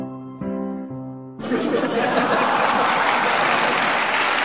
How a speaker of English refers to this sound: Then the audience saw George's shadow up on the screen. They were delighted. It's a monkey! A child yelled. And the audience laughed and clapped.